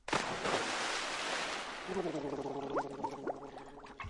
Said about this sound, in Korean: 그러더니 나그네는 옷을 훌렁훌렁 벗어던지고는 간다! 시냇물 속으로 풍덩 뛰어들었어요.